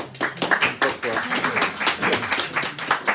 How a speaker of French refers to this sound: Oui, pouvez applaudir, bravo, vous pouvez l'applaudir bien fort, il mérite.